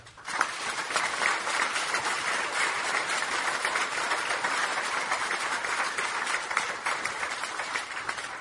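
An audience applauds a newly introduced speaker steadily for about eight seconds, a dense, even wash of many hands clapping at once that starts abruptly and holds its loudness throughout, with no voices.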